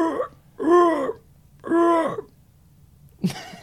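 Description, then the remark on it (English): A person imitates a great potoo's call with two drawn-out, mournful wails, each swelling and sagging in pitch, fairly loud, separated by a pause and followed by a brief breathy sound. “can you give us a, a great potoo?”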